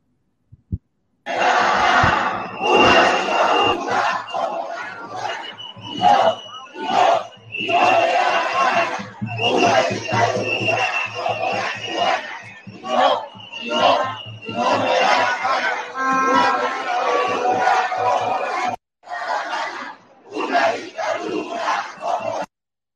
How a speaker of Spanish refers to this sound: Esto fue hace unos días en Colombia, el fin de semana pasado. Una manifestación del pueblo colombiano, una parte del pueblo colombiano